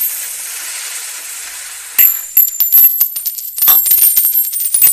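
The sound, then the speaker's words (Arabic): A soft steady hiss gives way to a sudden shower of gold coins and louis d'or pouring down from a hidden treasure as a chandelier falls: dense, rapid metallic clinks and jingles with bright ringing tones, loud and continuous until the end. “الثريا كي طاحت يطيح وراها هالكنز اللي بوه كان مخبيه قول مطر تصب فوق راسه بالذهب واللويس”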